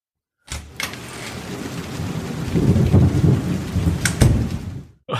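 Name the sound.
heavy rain with thunder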